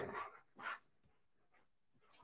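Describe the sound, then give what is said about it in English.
Two loud dog barks in quick succession as dogs chase each other around a house, followed by quieter scuffling and faint noises, then a short high-pitched yip at the end. “My wife is out for a walk, and uh, my dogs are running, literally running around the entire house.”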